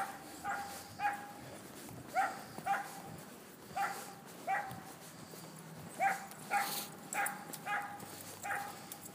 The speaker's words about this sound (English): Meanwhile, there's a a dog in a yard. I'm sure it's uh, you know bark versus bite as well.